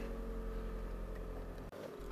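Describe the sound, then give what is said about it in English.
A car engine hums steadily, a low, even rumble with a faint tonal whine as the car starts to pull away, briefly cutting out near the end. No one speaks. “Um, the car getting going here.”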